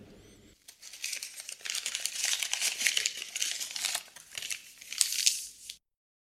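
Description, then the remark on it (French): Paper is crumpled into a ball for about five seconds, a dense, crackling rustle of irregular crinkles that swells and fades, with a few sharper crackles near the end before it stops. “Et cette boule de papier me permet et me donne l'opportunité de vous lire un dernier message biblique, un dernier passage.”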